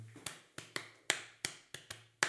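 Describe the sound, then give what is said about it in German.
About eight quick, dry taps on a thigh, fairly crisp, in a loose, slightly uneven rhythm with short gaps between them and no voices, made by a concertgoer tapping along to the music. “Oder wenn er nicht geredet hat, hat er auf seinem Schenkel so...”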